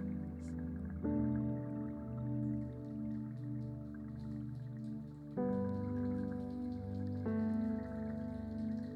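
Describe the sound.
A crowd in a church at night imitates rain with a steady patter of light taps and snaps, set against sustained keyboard chords that shift a few times. The patter sounds soft and scattered beneath the louder held tones.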